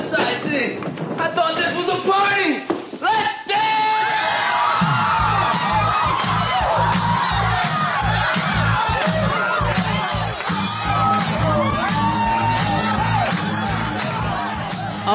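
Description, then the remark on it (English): A large crowd cheers and shouts in celebration, loud and sustained, with whoops and yells rising over a thumping rhythmic beat that kicks in partway through and continues to the end. “That sound means it's time for the celebrations of the show.”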